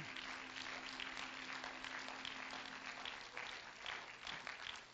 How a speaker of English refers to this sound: Would you clap your hands to him and give him thanks right now?